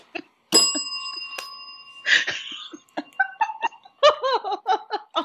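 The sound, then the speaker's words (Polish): A small bell rings out sharply, its bright tone lingering and fading, struck again briefly, then followed by bursts of giggling laughter. “Ja muszę też mieć taki dzwonek.”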